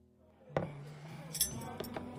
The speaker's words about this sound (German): Das Gesicht meiner Tochter wirkt etwas müde, eingefallen und gealtert, als sie die Stäbchen aus dem Besteckkorb nimmt.